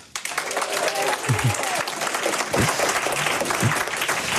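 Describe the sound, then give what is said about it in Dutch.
Sustained applause from a full, enthusiastic audience filling a hall at a symposium of the Stichting voor Psychotechniek in Amsterdam, dense and steady throughout, with a few voices and whoops faintly mixed into the clapping. “Ja, nu hoort het. Het is een volle en gelukkig ook erg enthousiaste zaal.”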